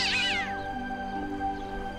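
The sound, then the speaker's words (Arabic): A black cat, pouncing at an old man and trying to grab his foot, lets out one loud, strange, high-pitched meow that wavers and slides downward, fading within half a second and leaving a steady low hum behind. “ولكن القطه انقضت عليه وحاولت الامساك بقدمه مصدره مواء غريب”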